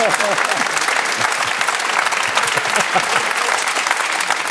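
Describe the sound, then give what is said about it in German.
An audience applauding: many hands clapping in a dense, steady wash of sound that stays loud and even for a few seconds without building or fading. “Oh, das ist ein Applaus wert.”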